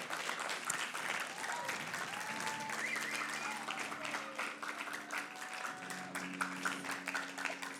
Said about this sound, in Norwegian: Kan vi ikke bare gi en applaus for de som eh, tok det valget?